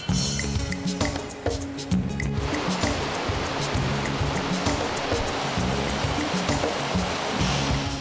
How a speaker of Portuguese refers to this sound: A queda é de mais de 270 metros de altura. O volume de água impressionante se desloca com força montanha abaixo. E o som ecoa pelo vale.